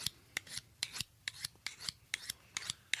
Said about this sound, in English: I've got a sharpening steel and I've got my knife I carry around every day.